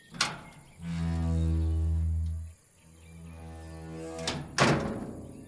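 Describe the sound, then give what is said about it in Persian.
A sharp click, then a long, steady metallic creak as a cage door is opened by a donkey and swings open, followed by a couple of clanks as it bangs against its frame. Fairly loud, with no voices. “الاغ درب قفس را باز می‌کند و با جفتکی دیگر شکارچی را از صدا اندازد”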